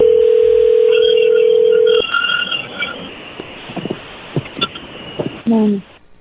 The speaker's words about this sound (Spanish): Muy bien, es más, le va a llamar el lobo, no haga ruido, ahí se está marcando.